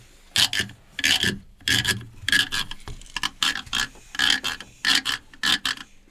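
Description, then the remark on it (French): A grotte-grotte, a notched rasp cut from a piece of Provence cane, is scraped with a stick in a steady series of short, bright rattling strokes, about a dozen in quick rhythm, clear with no talking, producing a croaking frog-like sound. “Une grotte grotte ça, ça fait le bruit de la grenouille.”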